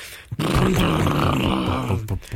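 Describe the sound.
A voice imitates a Harley motorcycle engine with a deep, rumbling, rhythmic growl that pulses steadily for about two seconds, loud, with no words spoken.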